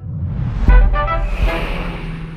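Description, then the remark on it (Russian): A car drives along the Baikal Highway toward Listvyanka on Lake Baikal, with a steady low road rumble throughout, and a short horn toot sounds about a third of the way in. No one speaks. “Мы едем по Байкальскому тракту в Листвянку”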